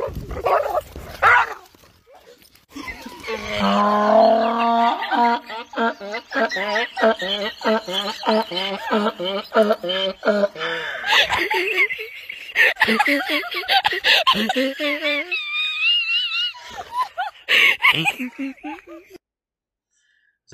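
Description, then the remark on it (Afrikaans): A donkey brays loudly at a dog, a boxer standing by an electric fence, in a long, rhythmic run of wheezing hee-haw cries that rise and fall for about fifteen seconds before trailing off into silence. “Ons sê ons laat ons kykers hierso kyk hoe lekker kan 'n donkie vir 'n hond lag.”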